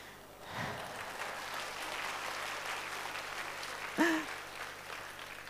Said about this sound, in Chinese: 谢谢，我就用你们的掌声当做我的临时工作证了哈。